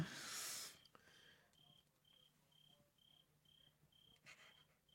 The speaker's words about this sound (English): You guys like that? you guys like that cricket?